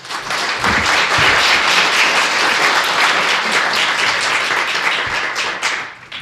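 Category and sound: crowd, audience applause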